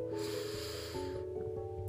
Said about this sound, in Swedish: Andas in genom näsan.